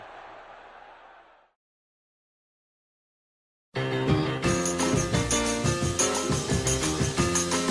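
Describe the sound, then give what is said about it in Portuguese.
São Paulo supporters at the Brinco de Ouro stadium roar loudly for about a second and a half after Careca scores for São Paulo in extra time, then it cuts off into silence before upbeat music with a steady beat starts up. “Agora a torcida do São Paulo que vai à loucura.”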